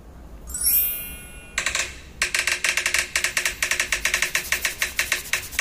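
Rapid keyboard typing, a steady run of crisp clicking keystrokes close to the mic, preceded by a brief rising whir; no voices.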